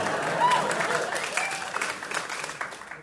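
A short burst of audience applause after a comedian mentions writing for All That on Nickelodeon, a dense, steady patter of many hands clapping that stays fairly loud before thinning out slightly toward the end.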